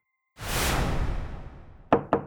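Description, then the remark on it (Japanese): A long, broad swishing sweep like a door opening fades out, followed by three sharp knocks in quick succession; the door is opened by an afro-haired boar eating a mandarin orange. No voices. “アフロヘアーのイノシシがみかんを食べながらドアを開けるとドアの向こうに立っていたラブール警部を見るなり目を皿のようにして驚きました”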